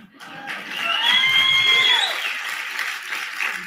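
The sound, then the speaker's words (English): An audience at a slide-show speech breaks into steady applause lasting a few seconds, with high whistles and whoops rising above the clapping. It swells quickly and stays loud before easing slightly toward the end. “That was supposed to be an applause line.”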